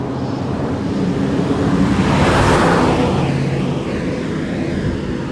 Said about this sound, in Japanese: ちょ っと車来ました